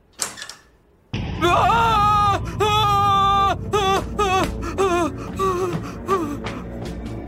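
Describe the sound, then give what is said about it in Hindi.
A man screams loudly and at length in a flat early in the morning, his voice rising and wavering in several drawn-out, strained cries after a brief breathy start, with no other speech. “अबे क्या हुआ इतनी जोर से क्यों चिल्ला रहा है भाई मैंने फिर से उस लड़की को देखा”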